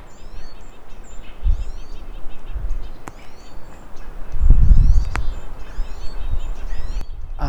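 Several birds chirp and trill back and forth in quick, overlapping bursts, fairly close, over a low rumble of wind or handling noise outdoors.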